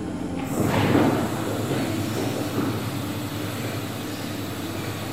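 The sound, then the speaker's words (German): A heavy mechanical rumble of an observatory dome turning in a circle to follow the sun and a hatch sliding open, with a steady low motor drone and a louder grinding swell near the start, no voices. “Eine Luke öffnet sich.”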